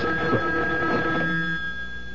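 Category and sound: household object, telephone bell ringing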